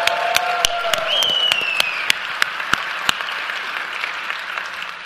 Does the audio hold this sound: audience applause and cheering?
yes